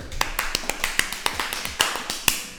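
A short burst of welcoming applause from a few people: sharp, uneven claps overlapping in a quick, scattered rhythm for a couple of seconds, with no talking.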